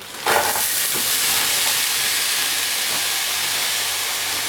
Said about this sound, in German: Jetzt könnte es ein bisschen zischen. Jetzt kommt das Gyros in die Pfanne.